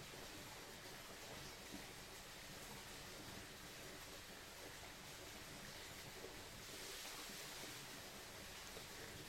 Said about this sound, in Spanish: Siente cómo el sonido de la quebrada te transporta al sendero de la selva que te conduce al sitio sagrado.